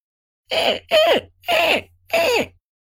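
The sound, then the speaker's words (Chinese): A human voice imitates a frightened monkey: four short, strained, raspy cries in quick succession, each sliding down in pitch, loud and evenly spaced with brief gaps between them. “他试着学着猴子的叫声，”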